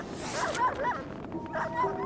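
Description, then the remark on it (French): Sled dogs pulling a covered sledge across Arctic pack ice yip and bark in quick, excited bursts, several high yelps overlapping over a steady hiss, moderately loud. “son équipage et lui aperçurent, à un demi-mile, en direction du nord, un traîneau carrossé tiré par des chiens et conduit par un être de forme humaine, mais apparemment gigantesque.”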